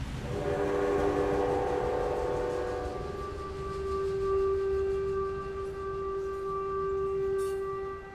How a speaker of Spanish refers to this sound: en la ciudad de Guadalajara que se llama Ferrocarril, porque aquí fueron los primeros asentamientos de los trabajadores de los ferrocarriles y bueno, ese sonido ha estado acompañándome a mí, a mis padres y a mi hermano desde que tengo memoria.